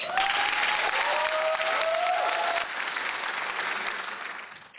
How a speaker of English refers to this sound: Big round of applause for our new partner